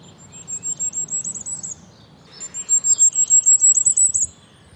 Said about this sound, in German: Und da sind auch die Goldhähnchen drauf. Das haben wir gerade gehört.